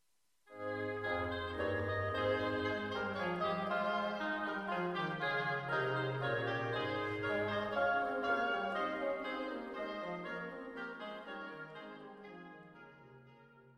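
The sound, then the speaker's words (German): A sustained instrumental passage with rich harmonic tones, likely organ or ensemble, playing steadily for several seconds after a brief silence, with no voices present. “Noch einmal hören wir Musik, bevor wir uns dann den beiden letzten Strophen noch zuwenden möchten.”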